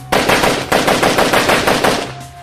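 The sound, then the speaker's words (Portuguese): A loud, sustained burst of machine gun fire from a passenger on the back of a motorcycle shooting at an armored car, rapid shots hammering in a steady rhythm for about two seconds before cutting off, leaving a brief low hum. “Uma pessoa guiando a moto e outra com a metralhadora atrás, descarregando no carro.”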